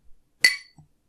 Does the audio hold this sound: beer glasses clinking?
yes